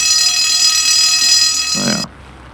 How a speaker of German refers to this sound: Ich klinge mal.